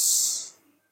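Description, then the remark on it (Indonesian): A single airy breath drawn in through the nose while seated during a guided breathing exercise, a soft hissing rush lasting about half a second before fading into quiet. “Mari kita ambil nafas”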